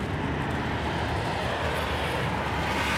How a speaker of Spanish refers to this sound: Autopista, venga, voy a dar la pausa. Que aunque es domingo, algún coche sí que pasa.